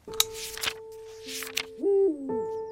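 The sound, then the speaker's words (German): An owl hooting: steady, hollow tones with a couple of wavering, sliding hoots toward the end, preceded by sharp clicks and rustling noises, clear with no talking. “Die Eule jagt gerne bei wenig Licht.”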